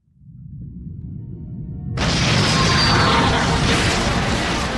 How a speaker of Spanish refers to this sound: y provocando una enorme explosión que parte en dos el asteroide.